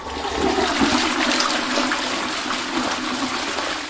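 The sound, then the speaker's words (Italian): A toilet flushes, a steady rushing gush of water that holds strong for a few seconds without a break, with no voices over it. “Ora, fatemi una cortesia, prendete tutti i dati che vi ho elencato, avvolgeteli accuratamente nella carta igienica, gettate Svuotateli e tirate lo sciacquone.”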